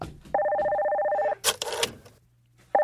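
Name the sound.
telephone ringing sound effect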